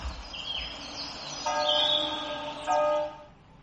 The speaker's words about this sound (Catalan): Eh, les campanes és una, si penseu que són clàssics, vale?